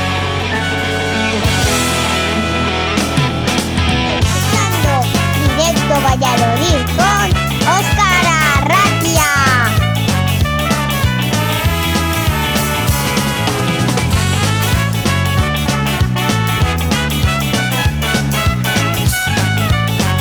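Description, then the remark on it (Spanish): A full band plays a song, with a singing voice over steady drums, bass and guitars, loud and continuous throughout. “bueno pues vamos a escuchar una de las canciones que más me gusta de vuestro grupo”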